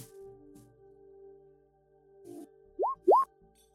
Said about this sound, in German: Ja, würfel mal Perception.